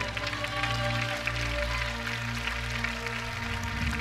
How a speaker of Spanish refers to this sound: Por lo menos los que han sacrificado algo, denle un aplauso al Señor.